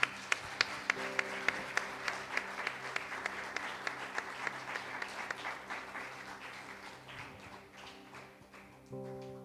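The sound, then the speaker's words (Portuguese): A church audience applauds Jesus Christ after a prayer, a dense, steady wash of many hands clapping with a few sharp, rhythmic claps standing out at first, gradually softening toward the end over a low sustained musical tone. “Amém e amém. Aplauda Jesus Cristo, queridos.”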